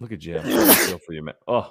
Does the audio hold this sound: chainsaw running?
no